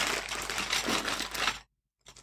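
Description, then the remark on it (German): A bag of buttons is rustled and shaken for about a second and a half, crinkly with small clicking rattles, then a pause and one short final shake. “Ich mach mal mit der Tüte.”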